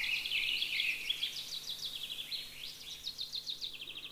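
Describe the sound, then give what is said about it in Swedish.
A songbird sings bright, rapid phrases, repeating a motif several times with varied, improvised quick trills and chirps, clear with no voices present. “Ni hör, den upprepar temat några gånger. Ganska varierat. Improviserar och lirar.”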